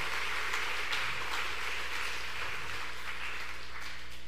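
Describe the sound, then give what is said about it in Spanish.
An audience claps steadily for several seconds for the children's teachers, a dense, even wash of many hands with no voices standing out above it. “O sea, dales un aplauso, dales un aplauso.”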